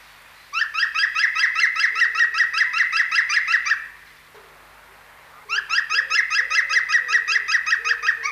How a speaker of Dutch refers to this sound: heeft het goed, een groene specht. Een groene specht. Dat is dat nou de groene specht.